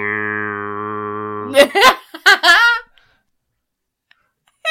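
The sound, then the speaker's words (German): A voice imitates a vuvuzela horn with a steady, buzzing low drone held for about a second and a half, followed by a few short vocal bursts, then quiet. “Ich wollte, so eine, ich wollte so eine, Vuvuzela machen, weißt du?”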